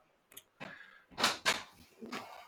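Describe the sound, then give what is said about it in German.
A door is opened as a child comes in, with a handful of short clunks and rattles spread over a couple of seconds, fairly loud, with no talking. “Nein, ich komme jetzt nicht, ich nehme Podcast auf. Tür zu! Tür zu!”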